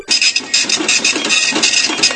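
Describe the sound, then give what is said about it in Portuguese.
A dot-matrix printer prints in a loud stream of buzzing, raspy bursts, the print head chattering in quick pulses with brief shifts between passes and no voices present, backspacing to overprint accent marks on letters. “É, tá tipo na impressora.”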